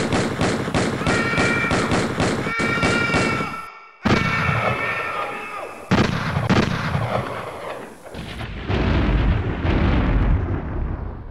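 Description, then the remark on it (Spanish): Loud bursts of rapid gunfire in an ambush as two bodyguards are shot: dozens of sharp shots in quick succession, broken by a brief pause and then continuing in dense, overlapping volleys with no voices. “Lo que vimos fue que a los dos guardaespaldas de don Eugenio los cosieron a balazos”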